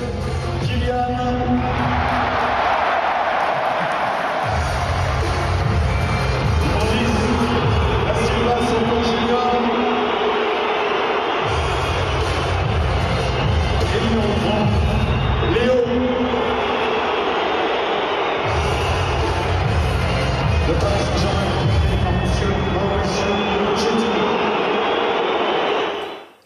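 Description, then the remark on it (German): A massive crowd of PSG football fans booing and whistling at their team during a weekend home game against Girondins Bordeaux, a dense, unbroken roar with shrill whistles threaded through it and deep rumbling surges that swell and ease every few seconds. “Und das war die Reaktion der Fans am Wochenende beim Heimspiel gegen Girondin Bordeaux.”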